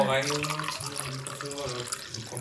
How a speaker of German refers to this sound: Also es klingt auf jeden Fall hier schon mal nach Party, wie ich hier einschenke.